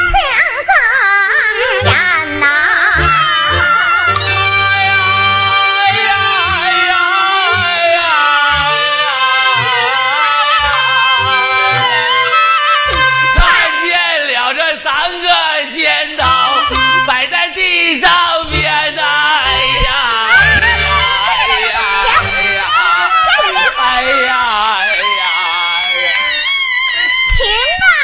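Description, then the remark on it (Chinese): Loud, theatrical wailing with long quavering sobs from two performers taking turns line by line in a staged crying contest of mock mourning before an audience, voices rising and falling in drawn-out cries that trade back and forth, sustained for the whole stretch. “那咱俩一提一句啊，看谁哭的好，朋友们看谁哭的好，给谁来点掌声啊！”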